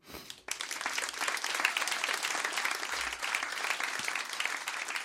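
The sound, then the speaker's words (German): An audience breaks into sustained applause after a brief pause, many hands clapping in a dense, steady wash that holds at an even level throughout. “Euer Applaus.”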